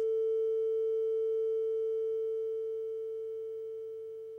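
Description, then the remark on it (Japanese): A steady, pure electronic test tone holds a single pitch, starting loud and then gradually growing quieter over the last couple of seconds as the volume is turned down to show its waveform getting smaller. No voices accompany it. “音を少し大きくしてみますえ大きくすると波の形が大きくなります逆に小さくしてみます波の形が小さくなります波の幅が音の大きさに相当します”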